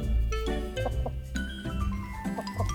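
Hens cluck in short, scattered bursts over a steady low rumble of background noise, the calls moderately loud, as they are offered dried worms, with no one speaking.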